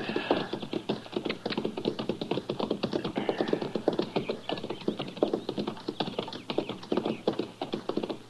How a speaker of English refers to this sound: Now, that's horses down there, Chester.